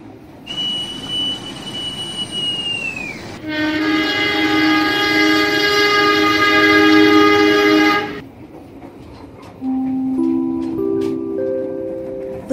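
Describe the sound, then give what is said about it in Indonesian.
The Sri Tanjung passenger train sounds a long, loud horn blast over a steady rumble, after an earlier thinner whistle, then a short rising chime melody plays as the noise fades, as the train nears its final station. “sesaat lagi kereta api Sri Tanjung menuju stasiun akhir Lempuyangan”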